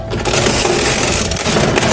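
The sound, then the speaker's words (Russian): A mechanical cash register clatters loudly and continuously as keys with the purchase amount are pressed and its crank is turned, gears whirring and rattling, ending with the cash drawer opening. There is no talking. “Нажимаем мы с вами кнопочки с суммой покупки. Таким образом крутим ручку.”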